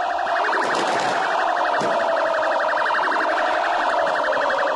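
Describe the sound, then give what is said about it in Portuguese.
A fire truck siren blares loud with a rapid, steady warble that never lets up, over a dense wash of crowd noise, as a fire brigade truck sets out among football fans celebrating in the streets of Recife, Brazil. “Quando o carro do Corpo de Bombeiros saiu, foi uma loucura.”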